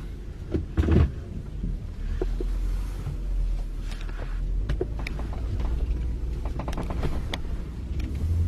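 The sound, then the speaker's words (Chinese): The V8 engine of a 2007 car rumbles steadily as the car drives off, a deep, continuous low drone lasting throughout, with a few faint clicks and knocks on top and no one speaking. “发动机的声音太好听了，浑厚，浑厚，真的是好听好听。”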